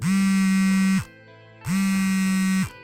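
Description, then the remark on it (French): A phone's vibration motor, which relies on a neodymium magnet, buzzes twice, each a steady, low, rattling drone lasting about a second, separated by a short silence. No one speaks. “Sans néodyme, pas de vibreur.”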